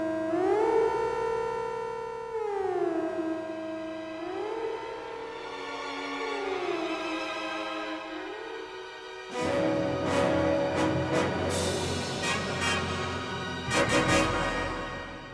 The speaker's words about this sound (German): Was ist los? Generalalarm. Sie greifen uns an.